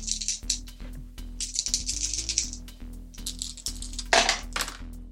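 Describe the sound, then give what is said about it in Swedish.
Dice rattle and clatter across a hard surface in a quick series of sharp clicks and tumbles, fairly loud, settling with a few final taps, as a player rolls for a shot in a game, with no one speaking. “Två lyckade treor, så jag får sex effektpoäng eller vad det heter. Du slår perfekt.”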